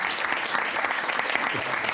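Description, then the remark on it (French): Steady applause from a group, a dense rapid patter of many hands clapping at an even loudness for the full two seconds, with a faint voice briefly audible underneath. “Hein, et j'applaudis aussi.”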